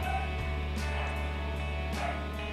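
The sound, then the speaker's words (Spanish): The speaker's dogs bark in the background: a few short barks spaced about a second apart, over a steady low electrical hum, with no one talking. “ok, si oyen perros de fondo, no puedo evitarlo.”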